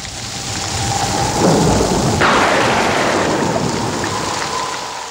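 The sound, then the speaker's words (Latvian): A loud, sharp crack of thunder breaks over steady rain, then rolls on as a long, deep rumble that slowly fades while the rain keeps hissing. “Zibens izlāde rada karstumu lielāku par sauli, un zeme uzņem ap 6000 izlādes ik minūti.”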